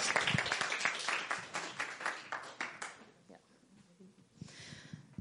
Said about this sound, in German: Gut, ein Applaus für unsere Schauspieler.